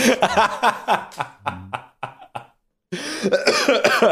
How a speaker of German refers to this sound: Muss ja direkt husten.